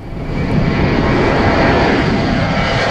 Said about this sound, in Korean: 아, 비행기가 이륙하네요. 네, 비행기 소리 들으니까 기내식 먹고 싶네요. 일부에 나가는 노래에 이 비행기 이륙 소리를 숨기겠습니다. 오늘 보물 소리예요.